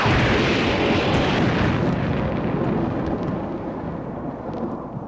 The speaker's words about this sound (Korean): 천둥이 치고 비가 오던 그때 지아비를 떠올리며 정신없이 칼질을 하지요.